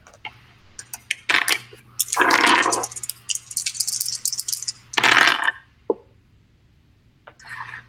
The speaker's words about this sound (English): roll three of your challenge dice, the d sixes. That'll be your cover.